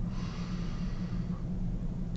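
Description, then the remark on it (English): A long, steady inhale drawn in through the nose as a breathing exercise to clear the mind, fairly loud, with an airy rushing quality that holds evenly for about two seconds. No talking. “Right, you can close your eyes take a deep breath in and deep breath out.”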